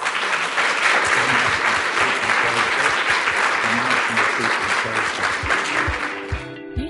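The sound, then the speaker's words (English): A crowd applauds steadily to thank the panelists at the close of a panel discussion, a dense wash of many hands clapping that holds strong for several seconds before beginning to thin out at the end. “Well, join with me in thanking our panelists”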